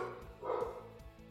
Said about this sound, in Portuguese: Eu vou falar e você vai latir? É isso?